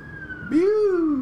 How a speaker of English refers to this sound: They, uh, uh, siren sounds going by, singing their siren song.